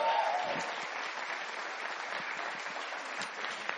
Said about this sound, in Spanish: Un aplauso para él. Primera vez que nos acompaña.